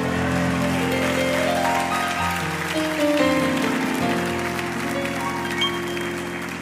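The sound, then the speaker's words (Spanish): A church audience claps steadily for several seconds, giving a loud round of applause to God, a dense crackling wash of applause mixed with sustained keyboard chords that shift pitch underneath. “Si lo cree, dé un aplauso fuerte a Dios.”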